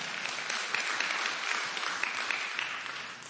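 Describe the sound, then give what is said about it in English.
A crowd claps steadily, a dense, continuous patter of many hands with no pauses, holding an even loudness throughout with no voices rising above it. “Yeah, you clap for that.”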